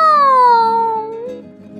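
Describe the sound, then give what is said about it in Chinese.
A voice imitates a cat's meow: one drawn-out, fairly loud, tonal cry that starts high and slides slowly downward in pitch before tapering off, with no other talking. “喵，喵，喵，喵。”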